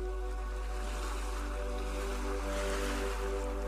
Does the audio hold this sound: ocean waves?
yes